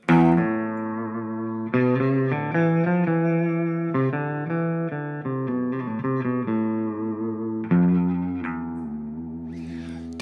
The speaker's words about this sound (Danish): Kan du prøve lige at slå tonen an, så folk lige forstår det? Vi har jo en guitar her.